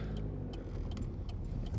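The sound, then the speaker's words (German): Steady low rumble of a car interior while driving to an institute, with continuous road and engine noise and a few faint high clicks or rattles over the top. “Äh, ja, wie ihr wahrscheinlich hören könnt, sitze ich im Auto.”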